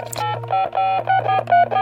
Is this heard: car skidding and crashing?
no